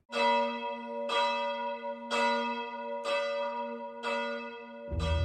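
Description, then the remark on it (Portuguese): A church bell of the Torre dos Clérigos tolls at midnight in a steady rhythm, about one strike per second, each ringing stroke loud and resonant with a long hum sustaining beneath; no voices are heard. “Primeiro, sete badaladas. A seguir, pausa. E depois, mais seis badaladas.”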